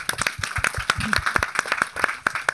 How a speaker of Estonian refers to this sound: teeme aplausi selle eest talle.